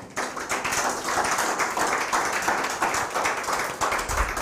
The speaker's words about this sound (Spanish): Denle un fuerte aplauso al Eterno.